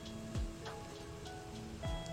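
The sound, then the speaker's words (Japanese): Soft, steady rain patters outside, faint, heard through a window left open with only the insect screen shut, with two brief low swooping sounds passing beneath the hiss. “今日は雨が降っていてまああの自分は普段あの窓をまあ基本的に網戸の状態にしててあの風通しのいい状態が好きなのであの窓をあんまり閉め切らないようにしてるのでちょっと雨の音が入ってるかもしれないんですけど”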